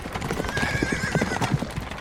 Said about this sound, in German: Hufe von Pferden trampeln über den Boden. Die Unruhe steigt. Noch weiß hier auf dem Landgut kurz vor Pompeji niemand, dass bald der Vesuv ausbrechen und die ganze Region unter sich begraben wird.